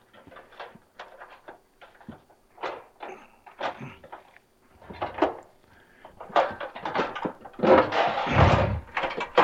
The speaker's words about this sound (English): Now let me get a, I'm going to get a cookie sheet out here.